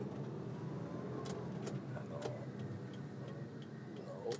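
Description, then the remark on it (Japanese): Outdoor construction work with traffic controllers on duty: a series of sharp, irregular knocks and clanks rising over a steady low rumble of passing traffic. “ほら工事の音聞こえるでしょ工事やってますよいろんなとこでねね交通整理の方もご苦労様ですとね思いながら通っておりますよ”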